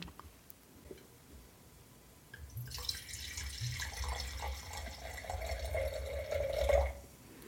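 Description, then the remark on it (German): Red wine is poured from a bottle into a glass: a steady gurgling stream starts after a short silence and rises slightly in pitch as the glass fills, with no voices. “Ich würde ihn auch direkt schon mal einschenken und würde schon mal ein bisschen Atmo erzeugen.”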